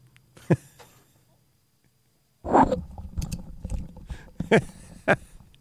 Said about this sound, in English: Yeah, okay, we heard the dog bark, and then we heard you.